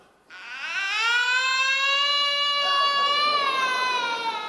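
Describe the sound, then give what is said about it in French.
A voice imitates a baby's cry: one long, loud, steady wail that rises slightly in pitch and holds for about four seconds, without any other talk. “Tiens, vas-y, balance-moi les pleurs de mon enfant, s'il te plaît.”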